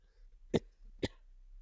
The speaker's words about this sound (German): Jetzt muss ich mich auch ganz kurz räuspern. Moment.